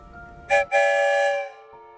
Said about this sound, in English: we can even ask the story train questions. One whistle for yes, two whistles for no. Let's ask the story train a question Are we going to a forest today? One whistle means yes.